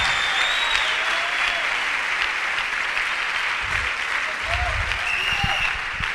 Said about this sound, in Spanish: A ver, denle un aplauso a los santos del Señor, al Señor.